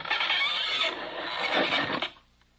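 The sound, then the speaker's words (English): A long, loud creaking squeal lasting about two seconds as a trap door in the floor, opened by a ring, swings open, wavering in pitch before cutting off abruptly into near silence. “Open the trap door.”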